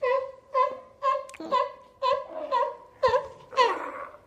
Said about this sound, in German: Da ist eine Katze. Ist das ein, wie so ein zarter Liebesakt unter Katzen? Seehund. Ach so.